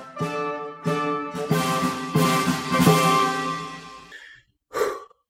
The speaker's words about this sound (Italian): Sono solo in casa. Sento cigolare la maniglia dalla porta d'ingresso.